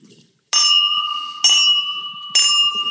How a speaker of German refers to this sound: Die klingen auch schön, die Finchgläser.